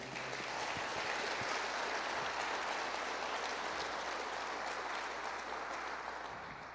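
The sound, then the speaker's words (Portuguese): A crowd applauds for Jesus at an evening religious gathering, steadily, a dense wash of many hands clapping at once, sustained and fairly loud for several seconds before tapering slightly at the end. “Dê um forte aplauso para Jesus aí.”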